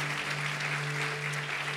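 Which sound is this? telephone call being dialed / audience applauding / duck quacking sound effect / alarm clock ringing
audience applauding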